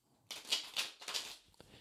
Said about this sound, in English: So just take a moment and connect to the cards by listening into the sound of them being shuffled.